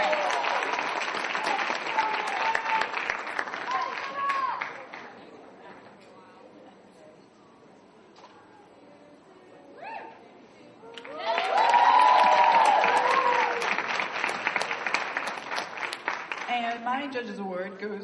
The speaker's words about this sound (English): All right, give these guys a big round of applause because they were fantastic.